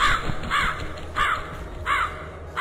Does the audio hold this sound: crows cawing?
yes